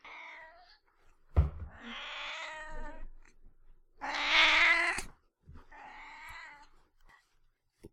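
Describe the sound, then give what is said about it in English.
A cat named Lexi meows repeatedly, about four or five drawn-out, wavering cries with short pauses between them, fairly loud, the middle one the strongest, with no talking. “Our uh, cat Lexi loved the mix.”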